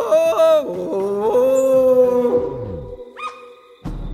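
A wolf cub howls in long, wavering, high-pitched tones that rise and fall, with overlapping cries at first, then a brief thin yelp and a short rough burst at the end.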